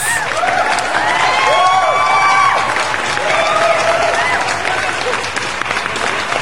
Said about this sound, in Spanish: Aplausos.